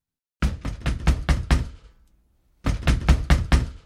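Heavy fist blows hammer hard on a door in two rapid flurries of about six or seven hits each, separated by a short pause, loud with no voices.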